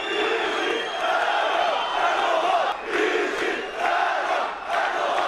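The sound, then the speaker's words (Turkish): A large crowd in Diyarbakır loudly chants "Serok Erdoğan" slogans in unison during Erdoğan's visit, a dense roar of many voices rising and falling in repeated phrases with brief dips between them. “Sayın Bahçeli, Diyarbakır'da atılan Serok Erdoğan sloganlarını duydunuz mu?”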